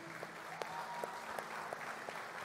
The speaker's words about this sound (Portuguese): E também quero convidar a igreja a dar uma salva de palmas recebendo a esses irmãos.